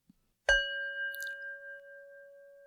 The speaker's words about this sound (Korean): 싱잉볼 소리입니다. 어, 종소리죠.